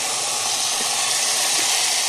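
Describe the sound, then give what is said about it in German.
Hot oil sizzles steadily in a pan as a splash of oil is added to meat browned on all sides, a dense crackling hiss that holds at an even loudness the whole time, with no voices over it. “So, jetzt hat es von allen Seiten Farbe. Ich tue noch einen Spritzer Öl dabei”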